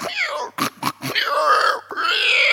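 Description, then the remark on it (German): A person imitates pigs: a string of short, harsh grunting bursts followed by longer squealing, oinking vocal noises, loud, with no actual words spoken. “Haben die Schweine gesagt und dann sind sie rein ins Wasser, Selbstmord.”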